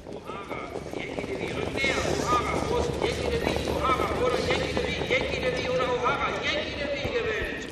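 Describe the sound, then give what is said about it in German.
Galloping horses thunder past on a racetrack in the last 300 metres of a race, their rapid drumming hoofbeats steady, blended with a loud, continuous wash of crowd noise and indistinct voices. “Und jetzt nehme ich einfach mal den Otto mit von dem Pferdegetrappel.”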